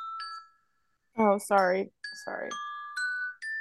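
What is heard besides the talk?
mobile phone ringtone ringing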